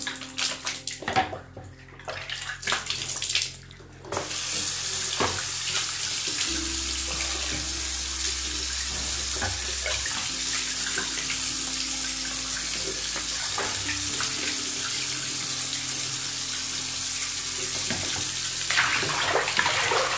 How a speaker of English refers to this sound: Now use water to wash your face.